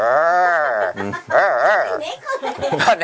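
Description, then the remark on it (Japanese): A person imitates a cat's fighting yowl to illustrate the English R sound: a drawn-out rising-and-falling growly wail followed by wavering, warbling cries, loud, with a bit of laughter near the end. “犬と猫間違っちゃいましたけどなんか言うじゃないですかあの喧嘩してる時に”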